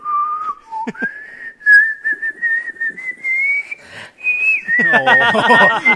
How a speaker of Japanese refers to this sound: 笛ですねこれはなるほどねこう夕暮れに染まる海を眺めながらこう口笛なるほどシチュエーション込みで、うん、ただこの息のそうなんですよねこの方ね多分こう息を吸う時も口笛吹けるタイプの人